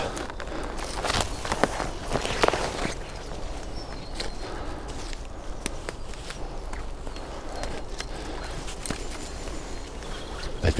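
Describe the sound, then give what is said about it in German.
Footsteps crunch and push off a branch-blocked path into dense bushes, heading toward a stork about 10 meters away, with irregular rustling of leaves and snapping twigs, scattered sharp crackles over a steady brushy noise, and no talking. “Und so tiger ich jetzt ins Gebüsch und ich glaube 10 Meter Luftlinie ist der Storch, der da steht.”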